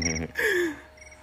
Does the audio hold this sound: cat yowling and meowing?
no